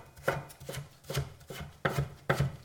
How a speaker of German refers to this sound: Ich halbiere jetzt einfach der Länge nach. Also teile die der Länge nach. Mhm. Und dann teile ich diese Dinger nochmal, dass ich sie so der Länge nach geviertelt habe. Und dann schneiden wir einfach kleine Würfel runter.